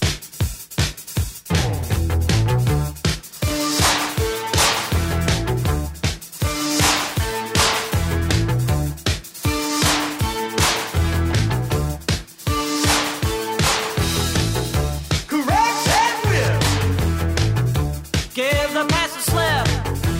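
An upbeat rock song by an American band plays loudly and continuously, driven by a punchy, steady beat with sharp percussive snaps and bright synth and guitar lines over a thumping bass.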